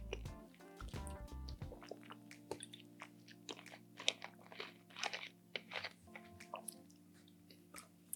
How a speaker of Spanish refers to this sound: Qué rica es el agua, qué rica es el agua.